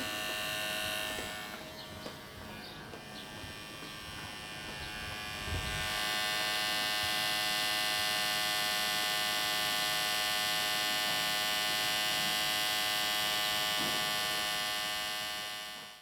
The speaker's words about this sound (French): vous l'avez entendu, il y a encore des bruits de travaux.